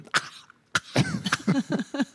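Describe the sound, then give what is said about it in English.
A person imitates a three-year-old boy coughing when a mask is put on his face: one sharp cough, then a quick string of short, breathy coughs in an uneven rhythm, fairly loud with no other sounds. “like, yeah, you're coughing”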